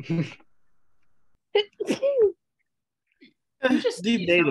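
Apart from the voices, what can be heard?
sneeze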